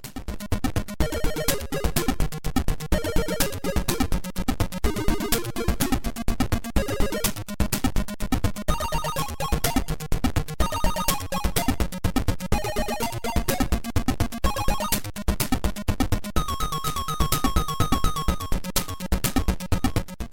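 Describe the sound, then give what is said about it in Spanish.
Amstrad CPC video game music plays without talk: a busy, buzzy chiptune with a driving rhythmic bass, quick bright melody notes, and a steady, fairly loud level for the whole stretch. “vamos a replegarnos con el poderoso sonido del CPC.”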